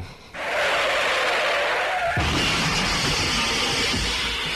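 A car's tires screech loudly for about two seconds, then a heavy crash bursts in and its clattering, rumbling noise carries on to the end. No voices.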